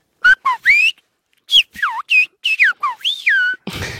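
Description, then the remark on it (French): A series of loud human whistles in the whistled language of La Gomera in the Canary Islands, about ten short rising and falling notes in quick succession, serving as a school bell rung in an art centre in Noisiel, Seine-et-Marne, France, with no talking. “Alors qu'est-ce que ça donne la sonnerie sifflée Écoutez.”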